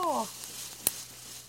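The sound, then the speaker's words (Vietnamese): Coffee beans sizzle as they roast on a rack about 15 cm above a fire while being stirred by hand in circles: a steady, soft hiss with one sharp crackling pop partway through. A brief voice sounds at the very start. “Ban đầu khi chưa quen đảo cà phê, các bạn có thể ngửi thấy có chút mùi khét hay tiếng cà phê nổ lốp bốp.”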